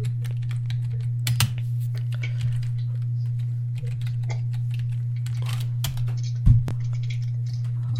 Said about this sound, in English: Ooh, Lars. I'm typing Lars Sullivan.